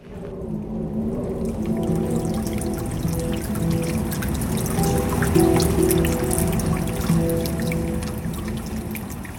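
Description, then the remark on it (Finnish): Steady rain falls on a city street in Milan, Italy, on a rainy, windy day, a continuous wash of pattering and dripping water with a low rumble of traffic underneath, holding an even, moderate loudness throughout. “Milanossa, Italiassa on sateista ja tuulista.”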